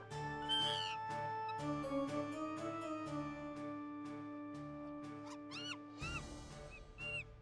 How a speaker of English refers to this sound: Hey, tell that monkey to be quiet. I'm on the phone. Tell that monkey to be quiet.